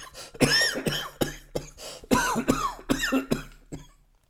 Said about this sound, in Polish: zaniósł się głośnym kaszlem. Jego płuca wypełniało gorące powietrze i duszący smród kadzidła.